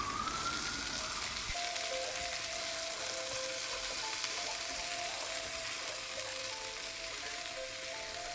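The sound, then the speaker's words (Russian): Hot oil sizzles steadily in a frying pan in a kitchen as cutlets fry, splattering everywhere; a dense, continuous crackle with a faint thin tone humming underneath and no voices. “Раскаленное масло шкварчит, летит во все стороны и брызгает на”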